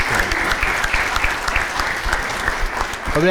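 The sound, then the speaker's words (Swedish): Steady applause from a group of people congratulating a man who became a father of a baby boy seven months ago, a dense, continuous patter of many hands clapping at even loudness for a few seconds with no talking over it. “Ja, ja applåd”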